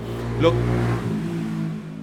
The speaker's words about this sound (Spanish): Dios, Dios mío, con estas motos.